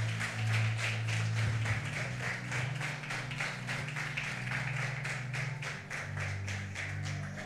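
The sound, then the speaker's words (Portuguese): A church audience claps together in praise of the name of Jesus in a steady, fast rhythm, the sharp claps continuing throughout over a sustained low musical drone, with no one speaking. “Palmas que louvem enaltece o nome de Jesus.”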